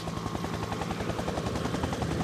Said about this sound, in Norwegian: Ute i felten henta de vann fra sjøen i en sammenleggbar rød bøtte som hang i en vaier fra helikopteret. I ei bøtte er det plass til rundt 800 liter vann, og på Flatanger fløy ett helikopter 70 ganger mellom havet og brannen på én dag.